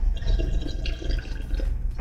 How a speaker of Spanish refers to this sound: Sorbito. Sorbito.